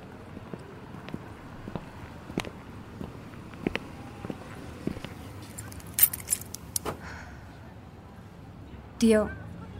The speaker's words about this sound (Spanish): Nada más ayúdame, por favor, a abrir la cajuela para meter los papeles, hija. Las llaves en la mano de Carolina tiemblan.